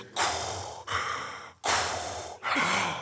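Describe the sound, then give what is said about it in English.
A voice imitates Darth Vader's heavy, rasping respirator breathing: four loud, hissing breaths alternating in and out in a slow, steady rhythm, with no talking. “I just hear his breath.”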